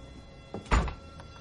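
A woman shuts a door with a solid, low thunk, preceded by a faint click of the latch and followed by a brief rattle as it settles. No one speaks.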